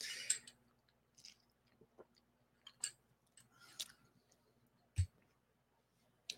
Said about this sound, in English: Got a little bit of water.